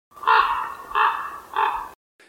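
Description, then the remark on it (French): A common raven, a bird the size of a buzzard, gives three harsh, croaking calls in quick, evenly spaced succession, each loud, with nothing else around them. “Pour moi, le plus beau, le plus grand, hein, il fait la taille d'une buse, c'est le grand corbeau.”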